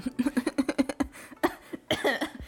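cough

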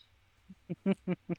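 small birds chirping

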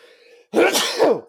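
a sneeze

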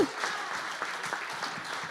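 audience applause

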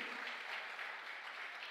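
audience applauding loudly

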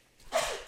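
sneeze

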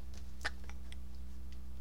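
clock ticking

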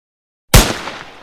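rifle shot

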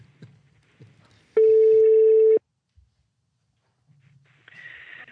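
telephone ringing tone

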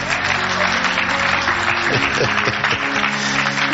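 audience clapping

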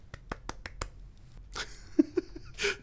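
golf clap

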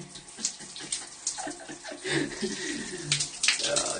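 shower running water

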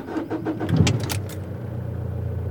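car engine starting

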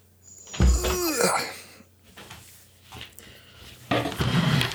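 door being closed

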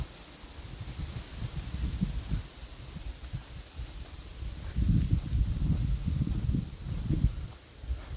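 wind

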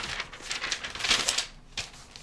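paper pages being flipped

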